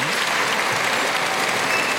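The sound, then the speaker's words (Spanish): A bullring crowd bursts into sustained applause for the bull, a dense, steady wash of clapping hands that stays loud and even for the whole two seconds, with no voices standing out. “El toro que, recibe una ovación del público.”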